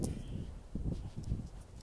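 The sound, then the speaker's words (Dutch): Strong wind buffets the microphone in a steady low roar, swelling in uneven gusts with soft thumping bursts, loud throughout with no voices. “Pak uit deze podcast, ook al heb ik volgens mij best wel heftig lopen ranten en waait het heel hard.”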